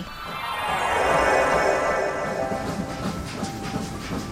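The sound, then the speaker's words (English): A train rolls along the tracks with a steady rumble and faint rhythmic clatter, while a sustained, harmonic whistle rings over it throughout. It swells in the middle, with no voices. “Two whistles? We're headed for the rainbow tunnel that will take us far, far away.”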